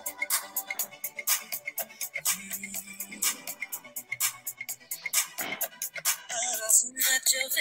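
A pop song's intro plays from a phone, a steady punchy beat of sharp percussive hits over layered synth and melodic tones, fairly loud, with no talking over it.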